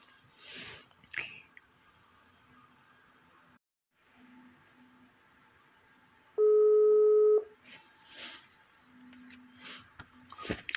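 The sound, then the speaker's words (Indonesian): A phone call to a colleague in Jakarta rings while connecting: one loud, steady electronic ring tone lasting about a second, set against a quiet background with faint rustles and soft clicks around it. “Bentar lagi saya akan sambungkan dengan rekan saya melalui telepon ya teman-teman.”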